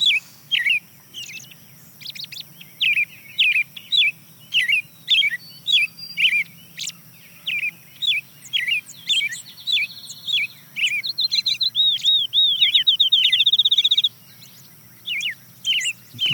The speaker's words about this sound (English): the next bird to join is a field sparrow. That trill is the field sparrow? That's the field sparrow.